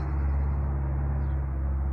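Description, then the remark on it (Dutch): A tractor's heavy diesel engine rumbles steadily as it drives past, with a deep droning hum that stays loud and constant throughout and no voices. “Nou rijdt even een eh, grote auto voorbij, misschien hoor je het. Of een trekker.”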